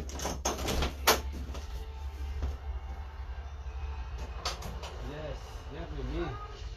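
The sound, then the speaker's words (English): A child bangs on a door several times, sharp irregular thuds over steady low background noise, followed by a high-pitched voice calling out near the end. “I know, cause you're pounding the door.”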